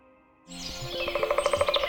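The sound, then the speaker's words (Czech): After a brief hushed start, birds chirp in a quick, even run of bright repeated notes, growing steadily louder, with no voices. “Chybí ti čerstvý vzduch a ptačí cvrlikání?”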